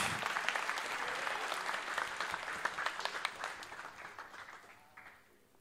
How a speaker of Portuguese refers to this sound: Você pode aplaudir ao Senhor por isso, a alegria da eternidade.